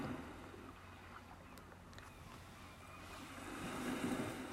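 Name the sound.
sea waves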